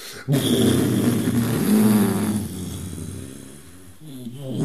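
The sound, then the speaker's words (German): A voice imitates a droning drone-doom tone: a low, sustained, growling hum held steadily for several seconds with slight wavering, fairly loud, then softening near the end. “Und dann, dann ist das Drone Doom. Es gibt kein Schlagzeug. Und ein Ton geht praktisch eine Minute.”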